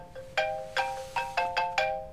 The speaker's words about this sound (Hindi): phone आ रहा है क्या करूँ उठाऊं या नहीं